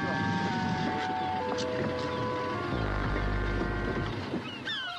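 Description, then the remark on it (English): A boat pulls in alongside a little jetty and is moored, its engine droning steadily, with a deeper rumble swelling midway as it manoeuvres, over constant wind and water noise. “The boat pulls alongside a little jetty, and the doctor jumps out with the mooring rope.”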